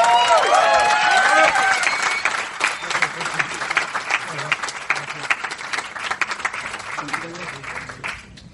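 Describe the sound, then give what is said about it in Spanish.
An audience breaks into loud, sustained applause for the next presenter, with a few whoops and whistles at the start. The clapping stays dense for several seconds, then gradually thins out. “Fuerte el aplauso para Adrián Ruiz, por favor.”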